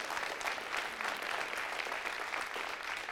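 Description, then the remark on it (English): An audience bursts into sustained applause mixed with scattered shouts during a sermon, a dense, steady wash of clapping for a few seconds without any single voice standing out. “Yeah, you can shout if you want. Sounds like you want it.”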